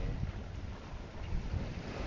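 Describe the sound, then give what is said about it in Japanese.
Steady wash of sea waves rolling in at a beach in Niigata, Japan, on a hot, dry day in August 2023, heard from a newly built walkway extending into the sea, blended with strong wind buffeting the microphone into a continuous low roar, with no distinct individual breakers standing out and no voices. “新潟の海の波音を聞きながら”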